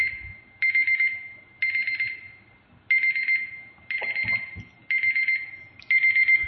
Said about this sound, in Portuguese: Começou a pitar esse trem aí.